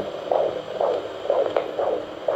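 A fetal heartbeat on a Doppler monitor, a quick, steady train of whooshing pulses about twice a second over a constant electronic hiss. It is clear, with no voices.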